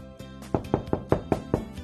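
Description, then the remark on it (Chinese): Xiaoqu knocks on the door of Miaomiao's home about six times in a quick, even rhythm, each knock a sharp, moderately loud hit, over a faint steady background tone. “小趣敲了敲门：“喵喵在家吗？”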